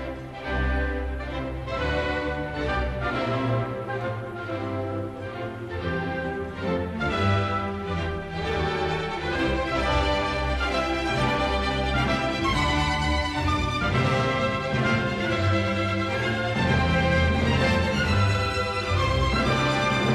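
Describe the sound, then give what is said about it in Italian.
A full orchestra plays the energetic, fast-moving allegro theme of Schumann's Second Symphony, with strings and winds driving forward in a dense, loud, continuous texture that builds steadily throughout. “Prendiamo ad esempio il tema dell'allegro.”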